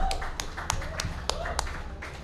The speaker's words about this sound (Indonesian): Kita kasih tepuk tangan dulu.